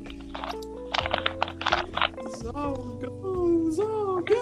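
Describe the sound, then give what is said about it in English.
A quick cluster of sharp computer clicks and keyboard taps, fairly loud, over a steady tonal hum, followed by quieter, scattered clicks as the hum continues. “Okay, that's you clicking.”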